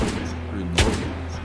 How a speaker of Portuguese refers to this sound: São dois tiros, nossa senhora! Um 18 de dano. O segundo tiro.